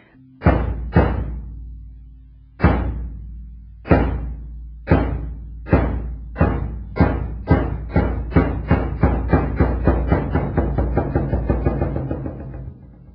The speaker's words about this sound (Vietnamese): Bởi vậy à, đừng có trộn rộn, nghe trống hầu chiều đánh.